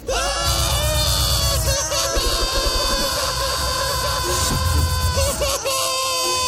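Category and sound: human body sound, people screaming in panic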